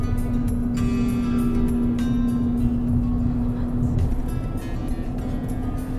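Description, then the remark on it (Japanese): Continuous car engine drone with a steady low hum and broad road rumble underneath, holding an even, fairly loud level throughout with no speech, recorded late at night while driving past the Mount Takao area toward Hachioji, Japan. “どうですかねこれ車の音多分その、うん、結構入ってると思うしどんな感じかななんて思ってて”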